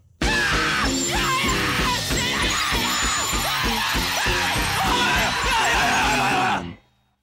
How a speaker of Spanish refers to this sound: que era una parodia a la gritería